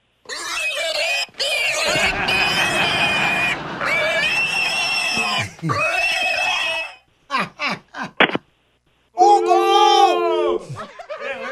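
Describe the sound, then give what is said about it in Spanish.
A pig squeals loudly in long, shrill, wavering bursts, broken by a few short sharp squeaks, then one more drawn-out squeal at the end. “¿Quiere escuchar cómo gritaba su hijo anoche cuando lo amarre como puerco?”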